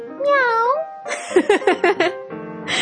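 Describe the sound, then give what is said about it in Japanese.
A person does a convincing cat impression: a drawn-out, wavering meow, then a quick run of four short, chirpy mews and a final nasal tone, fairly loud. “いや、マジで真似しようと思ったらね、猫のマジ声できますよ。”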